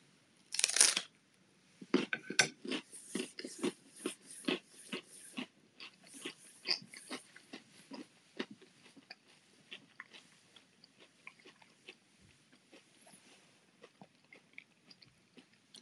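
Closed-mouth chewing, made for eating-sound music, with a quick run of crunchy, crackly bites, starting with a louder burst then settling into steady irregular chomps that fade softer over time. No talking.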